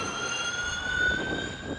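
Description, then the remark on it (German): A steady, high-pitched electric whine with a rushing roar beneath it, like electric race cars speeding past, sounding much like a jet flyby; loud and sustained with no voices. “Und wenn, sag mal, 20 Autos fahren, ist es schon auch ganz cool eigentlich von der Klangkulisse. Also es klingt so ein bisschen wie wenn so Düsenjets vorbeiballern.”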